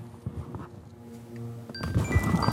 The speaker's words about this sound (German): Da klingelt schon das Telefon.